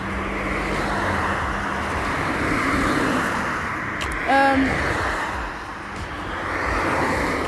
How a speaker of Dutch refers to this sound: oh, nog meer verkeer.